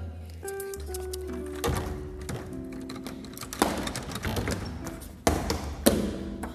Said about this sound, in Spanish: El joven miró a su joven compañera y sonriendo, pensaba a que el agua le escalaba hasta los huesos, otra vez el joven volvió a batir el adabón.